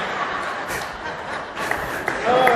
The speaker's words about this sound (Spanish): Gracias por ayudarme con las palmas.